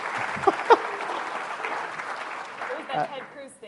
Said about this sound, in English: You can clap.